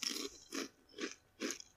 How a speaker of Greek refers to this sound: Εντάξει, μπορεί να μην μασουλά συνέχεια μπροστά στο μικρόφωνο. Πάντα θα μασουλάω μπροστά στο μικρόφωνο. Είναι ανάγκη δηλαδή να σε ακούει.